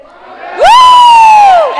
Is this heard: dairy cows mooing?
no